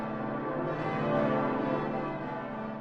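Church bells ring together in a dense, continuous wash of overlapping tones, steady and fairly loud throughout with no individual strikes standing out and no voices present.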